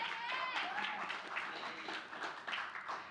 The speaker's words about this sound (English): So if you guys can give her a round of applause.